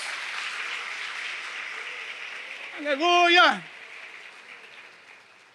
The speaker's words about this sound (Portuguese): Louvado seja o nome do Senhor. Se é que alguém pode aplaudir a Jesus, meus irmãos.